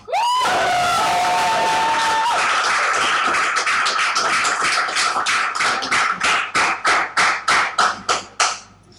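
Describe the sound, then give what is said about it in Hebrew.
An audience at an evening event bursts into loud applause with cheers and a high whistle at the start; the dense clapping then thins and settles into slower, rhythmic claps in unison before fading out. “בוא נשמע לפי, שוב פעם, אם אנחנו עושים מחיאות כפיים, עבדת עכשיו יפה.”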